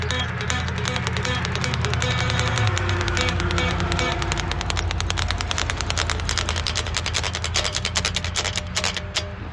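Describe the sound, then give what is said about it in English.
A train rolls past with a loud, steady low rumble and a rapid, continuous rhythmic clatter of wheels that keeps up for the whole stretch, easing slightly near the end. “train right there, man.”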